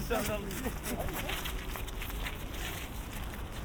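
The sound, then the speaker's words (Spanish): Children's quick running footsteps patter past on the left on pavement, mixed into steady outdoor street noise, with some voices. “con la izquierda, chicos corriendo.”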